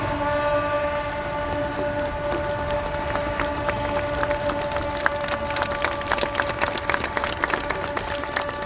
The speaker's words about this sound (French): Puis les marins actionnent leurs cornes de brume